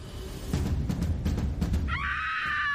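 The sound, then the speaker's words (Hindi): A woman lets out a loud, shrill, sustained scream near the end, following a few seconds of low rumbling and scattered thumping noises. “वो औरत कुछ सेकंड तक यूं ही चिल्लाती रही विक्रांत के कानों में उसकी आवाज चुभ रही थी”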